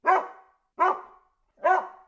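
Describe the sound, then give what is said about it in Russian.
A dog barks three times at an even pace, each bark loud and sharp with a short tail, separated by brief silences. “так собаку назвать.”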